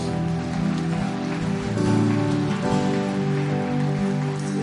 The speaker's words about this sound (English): Come on, can you just give God one more hand clap, shout of praise?